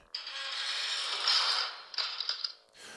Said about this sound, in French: lorsqu'il est entré dans sa cellule et que la porte s'est brutalement refermée derrière lui.